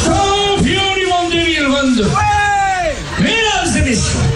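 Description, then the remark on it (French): A person loudly imitates a seagull's shrill cry at a seagull-cry world championship, a series of rising and falling wailing calls repeated several times in quick succession, strident, with faint crowd noise behind. “on peut dialoguer avec les mouettes et c'est là qu'on s'entraîne un petit peu au cri”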